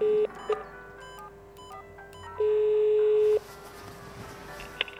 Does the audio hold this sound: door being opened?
no